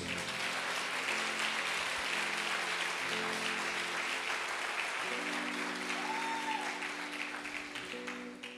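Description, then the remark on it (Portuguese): A large crowd at a church service claps continuously in dense, steady applause for Jesus for several seconds, with sustained musical tones, like an organ or keyboard, held underneath. “Dê um forte aplauso a Jesus.”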